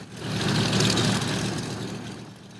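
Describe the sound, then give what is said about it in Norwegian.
DC-3 aircraft engines running up as the propellers spin, a steady, loud rumbling drone with a low throbbing pulse and a broad hissing roar over it, without voices. “Legendariske DC3 idet motorene starter og propellene begynner å snurre.”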